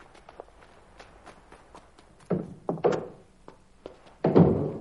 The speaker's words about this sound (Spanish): Corre hacia el interior de la casa.